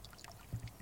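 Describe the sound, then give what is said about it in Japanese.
Water pours and splashes softly, with a brief burst of gurgling toward the end. It's a quiet, short stretch with no voices. “途中途中これはリアルの水の音ですかね”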